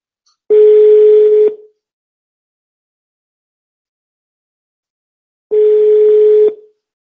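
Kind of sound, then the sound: signal or alarm, telephone ringback tone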